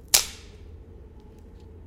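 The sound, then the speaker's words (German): A single sharp, dry crack as a stick snaps, a brief bright burst that dies away quickly, followed by faint low background rumble and a few tiny ticks. “Ähm, einen von diesen kann man super schnell und super einfach zerbrechen.”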